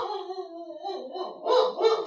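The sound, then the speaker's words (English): A dog lets out a long, wavering howl that slides downward in pitch, then breaks into two loud barks. No one speaks over it. “Let me go uh, smother the dog with a pillow or something.”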